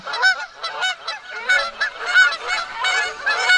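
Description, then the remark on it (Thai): A flock of geese honks loudly and continuously across a field, many overlapping nasal calls forming a dense, clamorous chorus with no pauses, lively throughout. “ไม่ช้า ห่านทั้งหมดก็ส่งเสียงสวดมนต์พร้อมกัน ดังไปทั่วทั้งทุ่ง หากมันสวดมนต์เสร็จเมื่อไหร่เราก็จะเล่านิทานนี้ต่อไปได้ แต่ปรากฏว่า พวกห่านนี้ยังสวดมนต์ไม่จบลงสักที”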